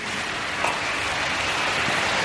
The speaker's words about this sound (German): Das ist jetzt die Wandelhalle. Das sind dann läuft man dann mit seinem Wasser und ähm, flaniert quasi einmal durch den Raum. Und man hört ja auch das Wasser plätschern und das ist halt einfach eine entspannte Atmosphäre hier.